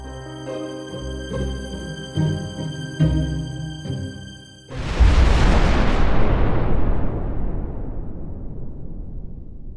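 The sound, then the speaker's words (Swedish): Tense music with low pulsing beats builds, then a burning ammunition ship explodes halfway through: a sudden, deafening blast that becomes a long roaring rumble, slowly fading away. “En monumental fullständigt förödande explosion.”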